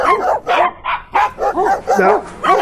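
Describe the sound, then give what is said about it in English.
Dogs bark rapidly and excitedly, about seven loud barks in quick succession with a few yipping, whiny edges, filling the whole moment with no pauses. “set the dogs on him.”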